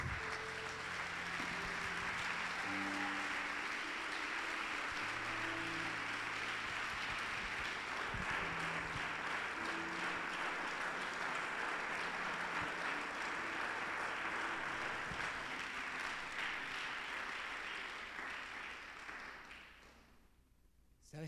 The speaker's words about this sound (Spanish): En el nombre de Jesús, el mejor aplauso que le pueda dar al Señor.